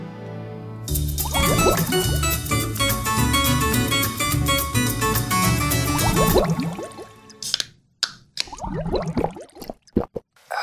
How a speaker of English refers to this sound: I don't know about you, but if you're as thirsty as I am, let's go to the break room, get a drink from the water cooler